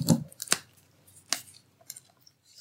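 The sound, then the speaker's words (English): A few crisp snips as a woman cuts the tip of a real feather quill pen for dipping in ink, three sharp cuts followed by fainter scraping clicks, with no talking. “She cuts the tips that she dips in the ink herself.”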